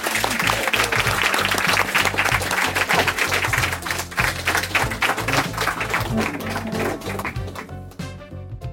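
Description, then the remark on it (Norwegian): An audience applauds a guest speaker with dense, steady clapping over a backing of low music, then the clapping thins out and fades toward the end. “og applaus for deg.”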